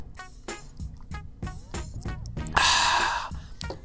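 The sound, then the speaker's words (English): Tapping and clunking as a Summer Shandy beer bottle is patted on the mic lead into a loud, breathy slurp as someone sips the last of the beer, followed by a soft exhale. “that was me enjoying the last sip of that beer”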